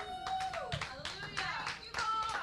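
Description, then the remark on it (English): A church audience claps together unto the Lord in a burst of steady, overlapping applause, with voices and tonal sounds carrying underneath throughout the short stretch. “Give a clap unto the Lord.”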